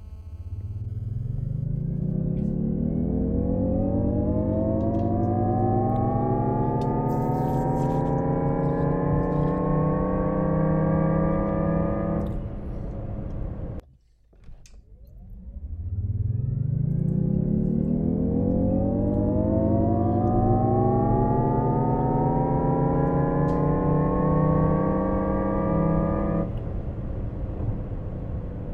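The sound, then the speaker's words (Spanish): The synthetic acceleration sound of a Jaguar I-Pace electric car, made by a dynamic sound-generation system: a smooth, rising harmonic whir that climbs steadily in pitch for about twelve seconds, pauses briefly, then repeats. Loud and without speech. “así es como en teoría va a sonar el sistema iPace, que pues es un sistema dinámico, dinámico de generación de sonido en el caso de Jaguar”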